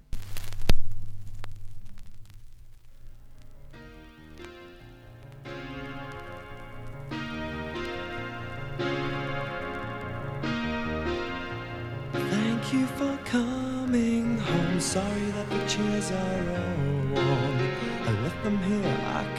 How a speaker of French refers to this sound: C'est une chanson, je déteste un petit peu le couplet, mais les refrains sont absolument extraordinaires, c'est un remède à toute dépression.